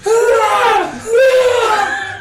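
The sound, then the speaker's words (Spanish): Two loud, close Wilhelm-style screams in quick succession, each a strained, high cry of about a second that bends upward then drops away, with no talking around them. “¿Se escucha el Wilhelm Scream?”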